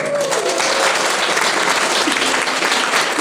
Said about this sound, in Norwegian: En applaus til hun.